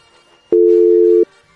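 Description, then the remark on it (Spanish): A single steady telephone busy tone after a pharmacy hung up on the call sounds loudly for under a second, a flat mid-pitched beep that starts and stops abruptly, with quiet line noise before and after. “Ya colgaron.”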